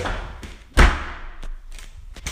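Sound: door being slammed shut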